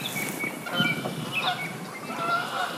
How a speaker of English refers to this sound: A big woodpecker sounds, and then a flight of geese.